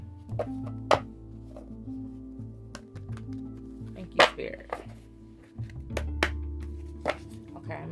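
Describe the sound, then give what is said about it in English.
Tarot cards being shuffled, heard as a scattered series of sharp flicks, taps and soft thumps at an irregular pace, over a low, steady humming background. “get a couple shuffles, you guys.”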